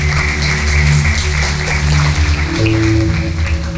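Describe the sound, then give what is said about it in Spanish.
A church audience gives the Lord a round of applause, clapping steadily in a dense, continuous patter, with sustained keyboard or organ chords ringing underneath throughout the few seconds. “Dale un aplauso al Señor si esto es una convicción en tu corazón.”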